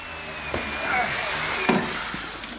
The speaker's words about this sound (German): Ach nein, im Tresorraum wird weiter gebohrt.